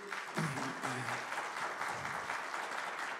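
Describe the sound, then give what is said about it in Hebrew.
An audience claps steadily in a dense, continuous wash of applause that holds a fairly even loudness throughout, with a few faint voices briefly audible beneath it early on. “אני מבקש גם את מחיאות הכפיים לאחרי שאני אלך, כדי שאני אספיק.”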